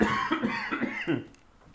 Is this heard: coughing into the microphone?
yes